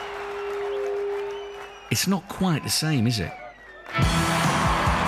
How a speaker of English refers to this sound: This is the sound of Saturday night and the main stage at a music festival without a headline act.